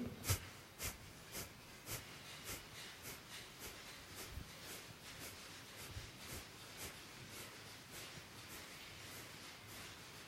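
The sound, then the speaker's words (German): A steady run of about eighteen quick, forceful nasal exhalations in a round of Kapalabhati yoga breathing practice, each a short sharp puff at a brisk even pace, fairly soft, with no talking. “übt wieder eine Runde Kapalabhati.”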